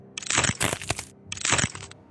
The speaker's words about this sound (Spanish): Oía el sonido de sus huesos, sus tendones, un sonido de muerte